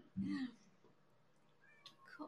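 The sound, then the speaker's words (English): A short cat meow sounds near the start, loud, followed by quieter, higher mewing tones toward the end over faint background noise, from Kitty Girl (Dahlia), a rescue cat outside at the door. “we have kitty one of our, our rescue cats the door at the door.”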